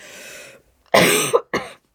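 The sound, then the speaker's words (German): A person coughs twice, loud: a strong harsh burst followed by a shorter one, after a brief softer throaty sound and a pause, caused by a scratchy throat. “Oh, Entschuldigung, wenn ich hier so huste.”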